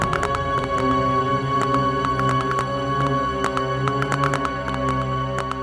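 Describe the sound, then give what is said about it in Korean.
Close, crunching chewing sounds crackle in quick irregular bursts, grinding on for several seconds over a steady low droning background. “그런데 이번엔 그 소리가 점점 더 가까운 곳에서 들리나 싶더니 귓가로 들리기 시작한 거예요. 빠드득 빠드득.”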